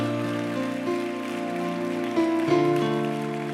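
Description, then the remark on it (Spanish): Steady, dense clapping from a large church audience applauding the Lord fills the whole stretch at a strong, even level, with sustained keyboard-like tones humming underneath; no one speaks. “Vamos a darle ese aplauso fuerte al Señor en esta.”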